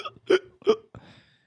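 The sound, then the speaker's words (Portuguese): A voice mimics hiccups: two sharp hiccup sounds in quick succession, followed by a shorter, softer catch of breath that trails off. “Mas eu queria mesmo tomar uma água com soluço.”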